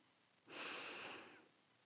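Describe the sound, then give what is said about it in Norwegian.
A single deep, airy inhale through the nose during a rage-yoga breathing exercise, lasting about a second, fairly loud with a soft hissing rush that swells quickly and tapers off, with no talking. “Så man bare Pust inn gjennom nesen.”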